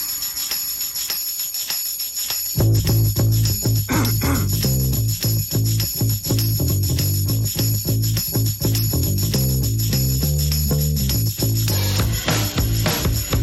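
A rock song played by a full band kicks in after a brief quiet opening, with punchy drums, a driving bass line and loud, dense guitars carrying a steady beat.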